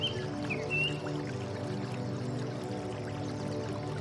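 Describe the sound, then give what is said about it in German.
A small brook flows in spring sunshine with a steady, even babble of water throughout, while a few high bird chirps briefly break through near the start. “Sie glitzern im kleinen Bach wie die schönsten Diamanten.”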